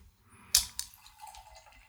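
A drink can cracks open with a sharp hissing snap, quickly followed by a second click, then liquid trickles and fizzes softly. No voices are heard.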